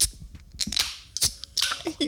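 A few sharp, snappy cracks as cans of sparkling drink, one lime-flavored, are popped open, each followed by a brief bright hiss of escaping fizz, with low murmuring voices underneath.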